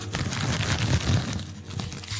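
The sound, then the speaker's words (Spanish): A dense rustle and crinkle of a hand grabbing a handful of crunchy corn chips from a bag, with scattered crunchy crackles running steadily for a couple of seconds. “voy a agarrar otro puño.”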